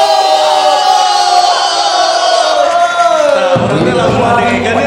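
A huge stadium crowd of thousands of football supporters roars, cheers and applauds after a goal against PSMS Medan, a loud, continuous wash of noise, with a sustained tone gliding downward over it before the roar swells again near the end.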